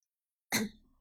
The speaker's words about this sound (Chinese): 苏哲咳嗽一声。